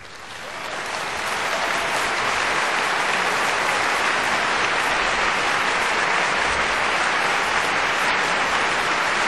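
Sustained applause from a crowd, a dense steady roar of clapping that swells in the first second and then holds loud and even for about nine seconds, with no voices on top.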